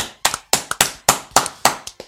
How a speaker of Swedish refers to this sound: Wow. Ja, det är värt en liten applåd. Ja, det är det.